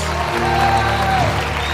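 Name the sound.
audience applause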